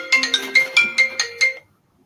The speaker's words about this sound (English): I'm sorry about this. I don't even know how to turn this phone off. Turn that thing off for me.